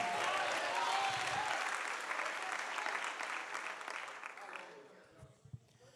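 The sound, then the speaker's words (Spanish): A crowd claps and cheers loudly, making noise to the glory of the Lord, in a sustained burst of applause, which gradually fades over several seconds until only scattered sounds remain at the end. “Hágame ruido a la gloria del Señor.”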